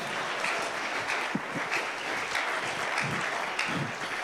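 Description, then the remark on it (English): A church audience claps for God during a sermon, many overlapping hand claps forming a dense, continuous wash of applause at an even loudness, with no pauses and no voices standing out. “Give God a better clap of you.”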